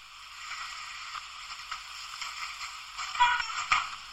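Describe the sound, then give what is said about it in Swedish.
Steady rustling and shuffling of things being gathered and packed as a woman packs up her belongings to leave, with two sharper knocks or bumps near the end. No voices. “Ja, och som ni kan höra här så eh, försöker hon ju säga Have a good one eller liknande och eh, det så, låter som att hon försöker packa ihop sina grejer för att gå därifrån.”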